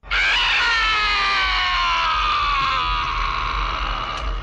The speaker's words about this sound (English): Here's Yeah. the worst scream that we've heard in a while.